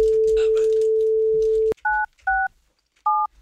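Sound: telephone dialing tones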